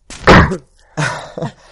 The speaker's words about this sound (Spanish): Voy a estornudar.